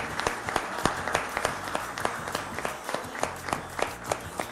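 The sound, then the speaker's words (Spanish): An audience at a gaita music awards event applauds a children's group, a finalist in the children's and youth gaita category: many hands clapping in a dense, continuous patter with a few sharper, louder claps standing out, and no voices over it. “Un aplauso para ellos.”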